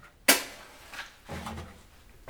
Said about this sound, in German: Dann macht er sich umstandslos in der Küche am Gasherd zu schaffen.